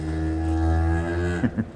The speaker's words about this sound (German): Voila! Das Rind